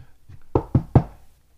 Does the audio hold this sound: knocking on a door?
yes